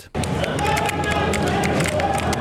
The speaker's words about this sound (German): Dolmahalle 3 in St. Gallen ist nur schwach beleuchtet hören ist das hektische Geratter von Tastaturen und immer wieder Aufschrei von Freude oder Frust.